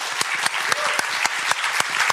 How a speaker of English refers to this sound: This warm applause is well deserved.